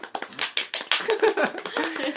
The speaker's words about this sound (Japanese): いいですねもうこれで拍手してもらってねもうねもうあの褒めて、ね、伸びるみたいな